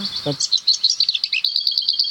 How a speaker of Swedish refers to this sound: Den har ett litet kvitter före. Det hör inte vi på det här hållet Nej. för att nu dämpar vinden också. Ja. Det här är en ärtsångare. Ärtsångare? Det är en liten grå sångare.